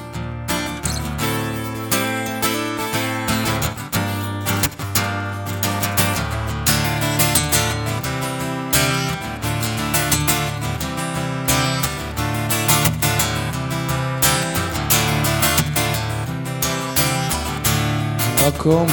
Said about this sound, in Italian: però tu hai scritto una canzone dedicata al mare che ascoltiamo adesso perché vogliamo sentire un frammento di mare mare. Mi ricordo quando la cantaste al primo maggio, partì da un primo maggio del 92 ed è stato un tuo grandissimo successo.